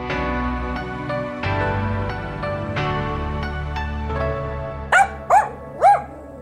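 Three quick, loud dog barks ring out near the end over a steady bed of mellow instrumental music with piano-like notes.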